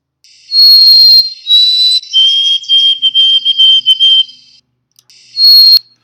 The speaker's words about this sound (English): And I'd be remiss if I didn't share with you the other tune here that the birds used. So the new tune, here's the new tune.